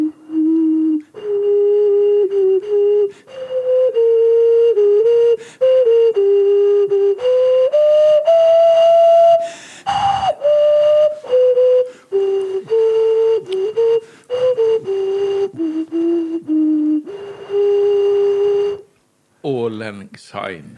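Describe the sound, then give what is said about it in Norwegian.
A Chinese xun clay vessel flute, also called a leirgauk, plays a slow, breathy melody of sustained low notes, fairly loud, with brief breaths between phrases and a short break near the end. “Uh, dette er en xun, XUN, kinesisk uh, Da jeg viste den til vår felles venn Fridtjof Urdalen, så sa han leirgauk.”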